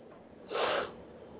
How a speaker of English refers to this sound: I am really getting tired of yawning.